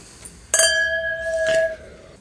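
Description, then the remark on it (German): Glasses of Veltliner wine clink together in a toast, one bright chime whose clear ringing tone lingers for about a second before a second, duller knock cuts it off. No one speaks. “Zum Wohl, mein Freund. Zum Wohl.”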